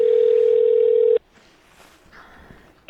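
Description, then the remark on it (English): A telephone line rings back while a call is placed: one loud, steady electronic tone lasting about a second, then near silence before a sudden click at the end. “But in the meantime, uh, let's let's get this thing uh, cranking here, and we'll get the phone rolling here, and figure out what's going on with uh, the phone call”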